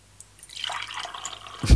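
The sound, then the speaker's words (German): A short stream of water pours and splashes for about a second during routine watering, fairly quiet, ending in a louder knock as if the container is set down. No one speaks. “Achtung, jetzt kommt das obligatorische Gießen.”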